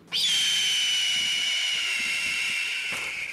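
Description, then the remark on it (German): A red-tailed hawk lets out one long, harsh, raspy scream, the call used in films to dub an eagle's cry; it starts abruptly, holds loud and high for about three seconds, then trails off slightly, with no talking. “Weil der Ruf des Originaladlers offenbar zu dünn klingt, wird er im Film synchronisiert durch einen Rotschwanzbussard.”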